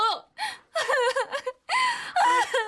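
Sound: woman sobbing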